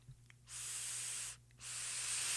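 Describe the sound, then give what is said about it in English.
Two sharp, steady bursts of high-pitched hissing, each lasting under a second with a brief pause between, as a Drip Theory vape coil sizzles during a draw. A low hum runs underneath. “You can hear it feels sharp Chase, does it feel sharp? Does it hear? Does it sound sharp? Sounds sharp to me.”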